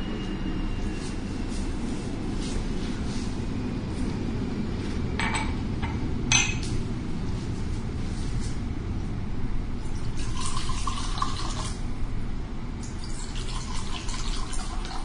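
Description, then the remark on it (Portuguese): Water pours into a glass in a steady trickle with a few brief splashy bursts, over a continuous low rumble and no talking. “um want some water first? Quer um pouquinho d'água?”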